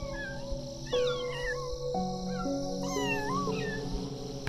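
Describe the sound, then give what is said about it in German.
About twenty kittens romp, chase and wrestle together, squeaking and mewing in overlapping high, wavering cries with first attempts at growling, fairly loud, with a steady low hum running underneath throughout. “Unter lautstarkem Fiepen, Quietschen, ersten Knurrversuchen und süßestem Miauzen.”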